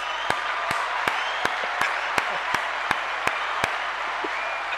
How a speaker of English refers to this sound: Pause for just a second. Pause for just a second for a round of applause.